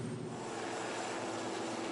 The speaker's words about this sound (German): vom französischen Flugzeugträger starten regelmäßig Flugzeuge, um in Irak und in Syrien